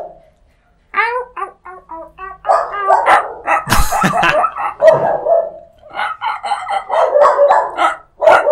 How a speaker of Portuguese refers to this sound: Um cachorrês agora.